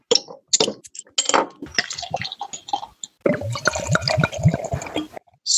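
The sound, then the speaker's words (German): A pale India Pale Ale beer glugs and splashes into a glass, a bubbly, gurgling pour with a brief pause partway before it resumes, foaming steadily to the end. “Also rein ins Glas.”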